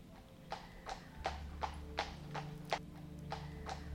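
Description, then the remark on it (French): Steady clip-clop of two brown horses' hooves on a hard surface, about two strikes per second, with a low rumble of wheels underneath as a coachman drives a carriage along. “Le cocher demande aux chevaux d'avancer et tu te laisses bercer par le mouvement du carrosse.”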